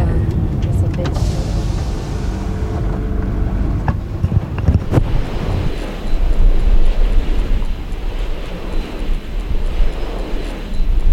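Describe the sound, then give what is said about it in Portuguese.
A steady, deep whooshing roar from a wind turbine close by, one of 150-metre-tall turbines with 64-metre blades at a hybrid complex in Santa Luzia, mixed with gusty wind noise. A few sharp clicks and thumps come early, then the low rumble continues evenly. “Esse é o barulho que uma pessoa ouve quando está pertinho de um aerogerador.”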